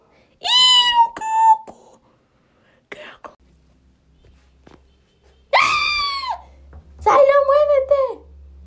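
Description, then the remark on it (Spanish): A cat with something in its mouth lets out three loud, drawn-out meows, each a second or so long, separated by quiet pauses with a few soft rustling sounds in between. “mi gato tenía algo en la boca.”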